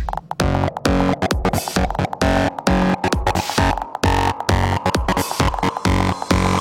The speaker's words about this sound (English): Okay, now we need some fat distortion.